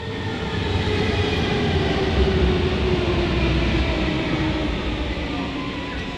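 A London Underground metro train rumbles loudly and steadily for the whole stretch, a dense roar of wheels on rails with a faint whining tone running through it and no voices.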